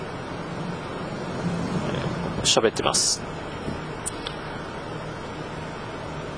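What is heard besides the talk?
car interior road noise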